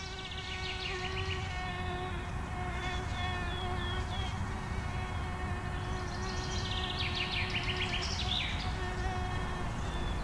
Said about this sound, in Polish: Samice komarów poprzez odpowiednią częstotliwość szepotania swoich skrzydeł zwabiają do siebie samce.